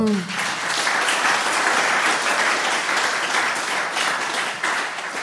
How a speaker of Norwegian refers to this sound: Men uh, jo, jeg syns vi kan koste på en applaus for første historie.